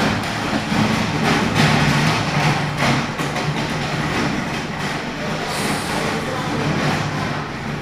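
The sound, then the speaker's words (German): A train wagon rumbles past, a steady loud roll of wheels on track with scattered clacks and a low mechanical hum, lasting throughout with no voices. “Aber jetzt kommt wieder der Wagen.”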